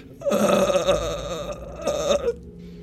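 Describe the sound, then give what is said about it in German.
A voice imitates a zombie groan: two long, rasping, guttural moans, the first drawn out and wavering, the second shorter, loud, with no other talk. “Das klingt auf jeden Fall bedrohlich.”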